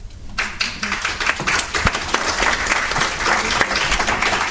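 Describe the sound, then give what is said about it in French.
An audience bursts into applause after a presentation, a dense, steady wash of many hands clapping that holds at a fairly loud level for several seconds without anyone speaking. “Je crois que les applaudissements sont bien mérités.”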